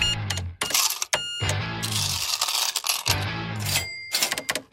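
A cash register clatters and rings, with coins jingling and dropping in bright metallic bursts, a drawer mechanism thudding low underneath, over almost five seconds with no one speaking.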